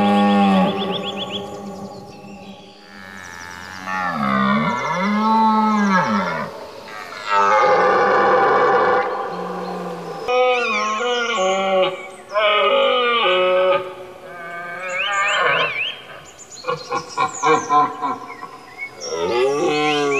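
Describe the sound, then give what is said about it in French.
An odd bird calls loudly at dawn, around 7 a.m. as the sun begins to rise, a continuous run of varied wailing, honking and mooing-like notes that swoop up and down in pitch, with short chattering phrases near the end. “Si vous levez, ça dépend où vous habitez évidemment, le matin de bonne heure, sur le coup de 7 heures du matin, là, juste au moment, en ce moment, où le soleil commence à poindre, vous pouvez entendre le cri de cet oiseau bizarre.”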